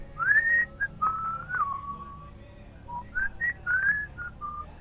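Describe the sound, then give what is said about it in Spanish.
A person whistles a short melody, with clear sliding and sustained notes in a few phrases, pausing briefly midway before the tune resumes. “bueno, yo tengo el recuerdo de la melodía, que estaban haciendo”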